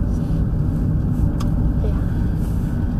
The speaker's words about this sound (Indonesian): oke kita lagi di mobil guys jadi kita keliling dulu aja sebelum masuk komplek rumah